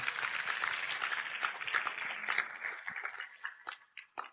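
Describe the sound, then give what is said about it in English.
An audience applauding: a dense, steady wash of many hands clapping that gradually thins out into a few scattered, separate claps near the end. “I think if you're going to applaud those ladies, now's a good time to applaud them.”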